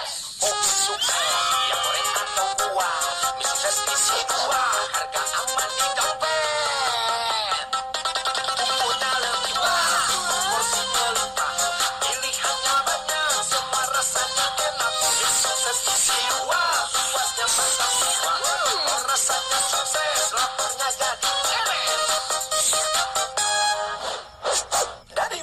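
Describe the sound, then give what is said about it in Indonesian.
A loud, continuous stretch of bright, busy music with layered melodic lines running throughout, no voices heard, ending with a slight dip near the close; played while waiting for a guest to arrive. “Nah, sebelum dan e, menunggu orang pebintang tamu datang, mari kita dengarkan musik ini.”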